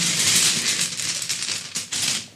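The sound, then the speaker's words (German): Five dice rattling and clattering together for a couple of seconds as they are shuffled and drawn, a dense jumble of small hard clicks with a few sharper knocks near the end. No one speaks. “Ich ziehe jetzt wieder fünf Würfel.”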